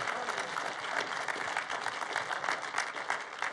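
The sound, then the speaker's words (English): A church audience applauds steadily to welcome and honor those attending a morning service, many hands clapping in a dense, continuous wash of sound that holds at an even level throughout, with no voices standing out. “We do that around here by honoring you, by clapping for you.”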